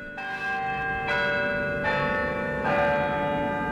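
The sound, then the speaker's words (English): The historic bells of Albany City Hall ring out in a steady sequence, about four strikes roughly a second apart, each with a rich sustained hum that overlaps the next. Loud and resonant, with no voices. “The historic bells of Albany City Hall return us to Albany Street, a public affairs presentation of Albany Broadcasting.”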